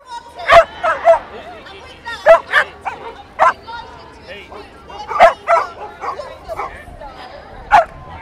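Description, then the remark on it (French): Several dogs bark and yip in sharp, irregular bursts, some louder than others, over a steady murmur of crowd chatter outdoors, at a street protest against Brexit in London where thousands of dogs marched with their owners. “Des milliers de chiens accompagnés de leurs maîtres sont descendus dans les rues de Londres dimanche dernier pour protester contre le Brexit et demander un référendum.”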